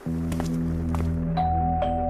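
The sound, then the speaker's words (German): A doorbell chimes in the middle of the night, around 4 a.m., at a house in a suburb of Kitzbühel, with bright, ringing tones, a second tone entering partway through and lingering, all over a steady low droning hum. No one speaks. “Er klingelt mitten in der Nacht.”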